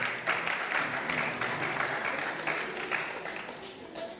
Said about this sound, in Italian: È strano che un arbitro prenda gli applausi, tu li hai presi.